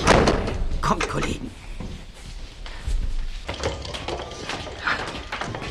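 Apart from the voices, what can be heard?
door opening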